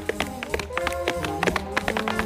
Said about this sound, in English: So if you're just listening to this now, there's not all that much to describe. It's you can hear the tap dancing going on.